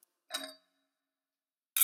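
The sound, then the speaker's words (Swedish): Glasses clink together in a toast, a bright chime with a short ringing tail, followed by silence and then another sharp clink at the very end. No one speaks. “Skål! Eh, skål!”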